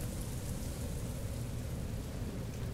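A gentle storm: a steady, soft rush of wind with intermittent raindrops fills the whole stretch, a continuous low rumbling wash with a faint patter on top and no voices.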